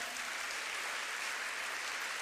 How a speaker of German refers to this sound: Komm, wir geben denen mal einen herzlichen Applaus. So cool.